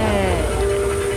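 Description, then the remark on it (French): A steady, loud aircraft engine roar with a sustained high whine fills the scene as passengers are about to board a plane, with faint murmuring voices mixed into the ambience. “Je suis sur le point de monter dans un avion”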